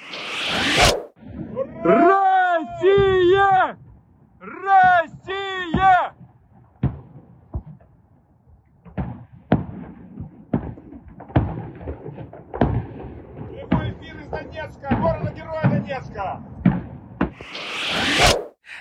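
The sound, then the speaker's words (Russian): A large outdoor crowd at mass street festivities in Donetsk chants in loud rhythmic bursts, then scattered sharp bangs like fireworks pop over a noisy mix of cheering and shouting voices. “Ну и начались массовые гуляния в Донецке. Вот как они звучали.”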